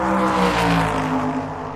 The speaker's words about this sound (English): You cross the border, boom, just like that, you're in Illinois, you gotta hit the gas or get run over. I mean, you can see the traffic surge toward Chicago.